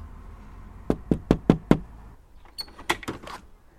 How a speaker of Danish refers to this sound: Nu må vi se, om hun er hjemme der står, at dørklokken ikke virker, så jeg må hellere bare banke på.